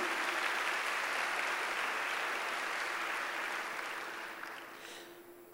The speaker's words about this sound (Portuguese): Pode dar salvas palmas para Jesus.